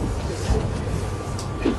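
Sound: metro train riding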